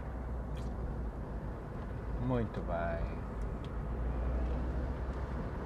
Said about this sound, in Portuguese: Pronto, isto é a descer, nem precisamos acelerar. Eu vou aqui em quinto e o carro vai deslizando, sempre tendo o limite de velocidade